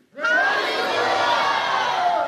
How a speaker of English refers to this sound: So, what I want you to do is on the count of three, I want you to say either praise the Lord or hallelujah. You can have your choice, all right? On the count of three, I mean, this is called shouting to the Lord, all right? One, two, three.